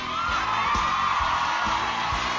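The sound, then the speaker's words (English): A studio audience at the live Stratford University Pop Quiz show from Washington cheers loudly and steadily, a dense roar of voices with whoops and yells, while dull low thumps recur about every half second underneath. “They're cheering much.”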